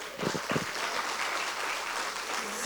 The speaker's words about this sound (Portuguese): É possível, dê um aplauso a Jesus.